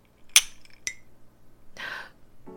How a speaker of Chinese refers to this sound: 好，总之 好 不免俗 是， 我们还是要来一下。 赶快敲杯， 好，来，好，干杯。